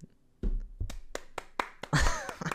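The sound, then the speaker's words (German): Scattered handclaps from a small audience welcoming the Lukas News Show, a handful of sharp, irregular claps with low thumps between them, moderately loud and with no voices over them. “Hören Sie, hören Sie ruhig auf zu klatschen da im Publikum und zu Hause.”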